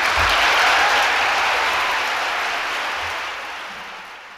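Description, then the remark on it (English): A crowd applauds a line in a speech about rights, a dense wash of many hands clapping together, loud throughout and slowly tapering off toward the end, with no voices heard. “applause for that line, ladies and gentlemen.”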